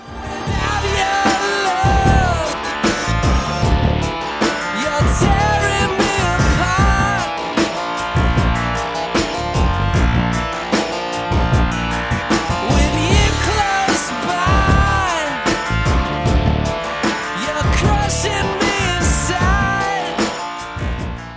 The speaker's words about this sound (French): l'arrivée du clavinet fait entrer le titre dans sa partie la plus rock, avec le groove de la basse puis l'entrée de la batterie